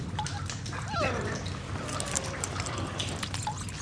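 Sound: small dog whimpering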